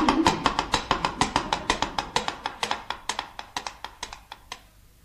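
Coconut shells clop out the hooves of a horse drawing up, in a quick, steady run of hollow knocks that gradually slows and softens until the trotting comes to a stop. No one speaks.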